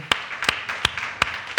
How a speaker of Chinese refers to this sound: 我们给神一个最大的掌声。